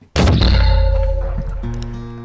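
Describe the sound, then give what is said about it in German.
A Christmas tree cannon with an iron barrel fires to shoot off a Christmas tree: a single loud, sudden blast with a deep booming body that rings and rumbles on for about two seconds before fading slightly. “Ja, das ist also eine Weihnachtsbaumkanone. Und die ist dafür da, um einen Weihnachtsbaum abzuschießen.”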